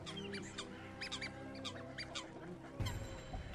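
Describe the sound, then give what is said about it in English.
A duck quacks repeatedly in short, irregular bursts, fairly loud, over a steady low background hum with a brief thump near the end. “There's the duck.”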